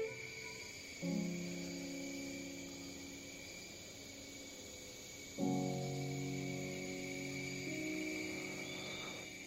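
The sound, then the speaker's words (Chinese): Cicadas drone in a steady, high-pitched shimmer throughout, in summer, with no speech. Twice, lower sustained tones swell in underneath the insect buzz. “如今又到夏天，久违的蝉鸣又响起了。”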